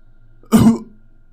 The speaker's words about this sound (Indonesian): Ada suara seperti orang terbatuk di sebelah kanan. Tempat di mana letak tangga menuju ke atas.